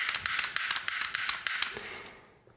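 A toy cap gun clicks over and over without going off, a quick, uneven run of sharp, light snaps that slows and fades out at the end.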